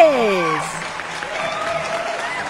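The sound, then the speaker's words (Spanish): Steady applause fills the whole stretch, a dense crackling wash, with sliding whistle-like tones gliding downward at the start and a held tone rising through the middle. “Me encantan esos, esos aplausos, porque además se los merecen.”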